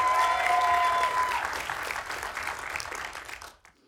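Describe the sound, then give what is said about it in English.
A large audience at an awards ceremony applauds the nominees for Achievement in Directing, Jordan Peele for Get Out and Greta Gerwig for Lady Bird. Dense crowd clapping starts loud and gradually fades over a few seconds before cutting off, with a few whoops mixed in. “Now, the reason people are clapping, obviously, this is good work by both Greta Gerwig and Jordan Peele, but this was a part of the surprise nominees in these categories.”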